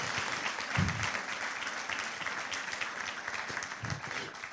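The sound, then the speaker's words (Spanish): An audience at a church service applauds loudly for the Lord Jesus, a dense, sustained wash of many hands clapping at once throughout, with a few low thumps and faint voices mixed into the crowd noise. “Dale un aplauso fuerte al Señor Jesús.”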